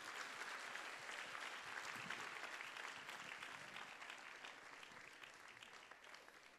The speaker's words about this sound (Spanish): Gloria al Señor. Dele palmas al Señor esta tarde, aleluya.